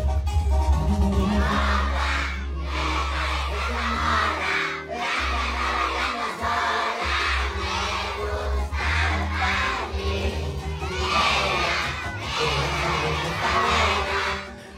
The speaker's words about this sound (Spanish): En el video se mira como unos, ¿qué? 200 niños como que sacaron a toda la escuela a cantar esta canción